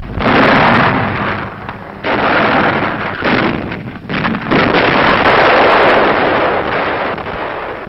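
Anti-aircraft guns open fire on approaching Russian armored vehicles in a loud, dense barrage of rapid overlapping bursts, broken by a few brief pauses, with a muffled, rumbling quality and no voices.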